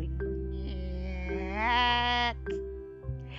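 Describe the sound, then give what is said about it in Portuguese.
A voice imitates a creaking door with a drawn-out, wavering nasal squeak that bends upward in pitch midway, sounding fairly loud over a low steady hum. “Mas, quando ia atirar, ouviu a porta fazer”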